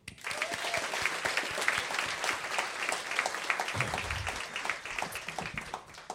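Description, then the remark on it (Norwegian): A crowd applauds steadily for a bat expert introduced as the guest of the season's first talk, many hands clapping in a dense, continuous patter that stays fairly loud throughout the whole stretch without tapering off. “Gi en stor applaus til mannen som skal eh, fortelle om eh, dette, flaggermusekspert”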